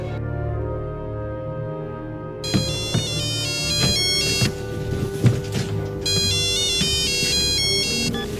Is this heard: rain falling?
no